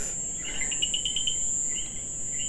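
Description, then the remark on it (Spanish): A steady, high-pitched drone of cicadas and crickets fills the night air while short, quick coqui frog chirps repeat in bursts over it, with no voices present. “Entonces, esa chicharra, esos coquis. esos grillos, todo se mete en mi grabación.”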